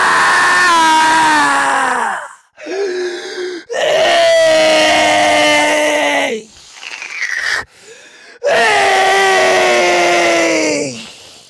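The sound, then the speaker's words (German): Three long, loud, eerie wails, the scream of the Ions heard while falling through an endless grey void, each sliding slowly downward in pitch, separated by brief breathy hisses and pauses, alone with no talking. “dieses Fallen in die Unendlichkeit, um euch rum ein grauer Raum aus Nichts, eine graue Ewigkeit und ihr fallt und ihr hört den Schrei der Ionen.”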